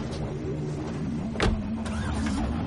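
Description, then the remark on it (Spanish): An electric garage door, lowered after a button is pressed on the garage remote, closes with a steady, droning motor hum and a low mechanical whir, broken by a brief louder rattle partway through. No voices are heard. “Hank presiona un botón del mando del garaje y la puerta comienza a bajarse.”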